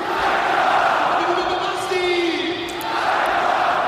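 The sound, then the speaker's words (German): A packed stadium crowd chants the name of their number 44, the goal scorer, in unison after his goal, a loud, sustained roar of many voices with a rising, drawn-out call, steady and dense throughout with no other talk. “Und wie sich die, diese Antwort anhört, das hören wir jetzt.”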